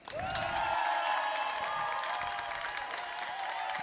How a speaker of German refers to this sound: Dann fünf Sekunden Applaus bitte jetzt.